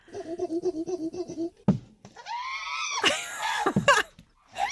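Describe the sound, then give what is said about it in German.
Chimpanzees in West Africa hoot in rapid rhythmic pants, then a single sharp knock rings out as a large stone is thrown at a tree trunk, before the calls rise into loud, shrill screams as they run off hooting. “Forscher haben sie dabei beobachtet, wie sie größere Steine aufheben, wie sie dann die Steine auf einen Baumstamm werfen und dann johlend davonlaufen.”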